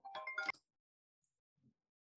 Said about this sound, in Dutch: En nou zul je zien, dan word ik gebeld.